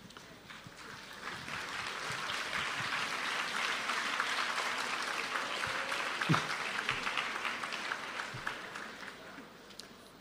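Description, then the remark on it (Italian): Steady audience applause, a dense crackle of many hands clapping that holds at an even level for about ten seconds, with no voices over it. “mi sto interrogando sull'identità di coloro che, che hanno applaudito.”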